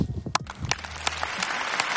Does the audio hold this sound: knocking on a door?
no